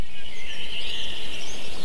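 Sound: birds singing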